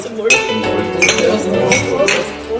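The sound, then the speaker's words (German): Glasses clink together in a toast at a regulars' table gathering, several bright chiming taps spread across a couple of seconds, fairly loud, with murmuring voices underneath. “Prost. Auf, auf, auf den nächsten Stammtisch.”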